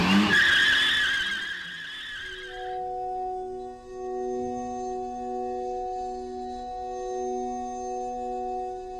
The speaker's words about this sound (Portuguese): mas mesmo assim ligou o limpador no máximo e deixou a rodoviária planando o carro no asfalto lavado.